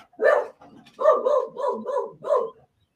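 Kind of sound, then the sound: animal, dogs barking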